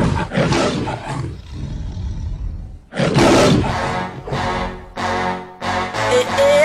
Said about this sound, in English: When the lion roar, the lioness, the lion roar together.